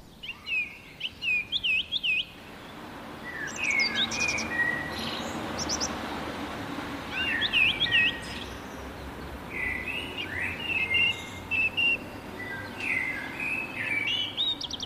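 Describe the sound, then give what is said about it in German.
Several songbirds, a blackbird first and then more and more birds joining in, sing overlapping phrases of bright chirps and whistles at dawn, repeating in bursts over a steady wash of low background noise, like an outdoor dawn chorus. “Doch nach und nach werden immer mehr Vögel wach und stimmen mit ein.”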